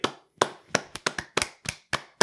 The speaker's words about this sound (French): Applaudissez tout le monde. Applaudissez.